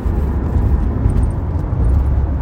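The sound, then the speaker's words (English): A steady, low road rumble fills the space, the muffled drone of a moving car's interior, with faint hiss above and no voices. “Car casts are weird.”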